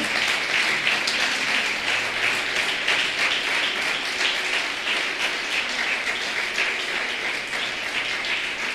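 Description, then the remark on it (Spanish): An audience applauds loudly and steadily for several seconds, a dense wash of many hands clapping at once with no distinct rhythm and no voices standing out. “Dale un aplauso bien grande al Señor.”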